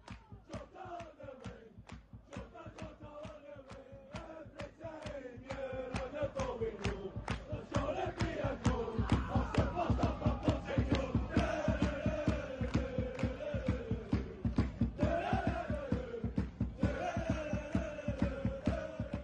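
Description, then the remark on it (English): A large crowd of football fans sings the new chant about Celtic player Jota, a loud, rhythmic mass of voices with steady beats and rising, falling melody, growing louder partway through and holding strong. “Um, whenever I first heard, have you heard the new Jota song?”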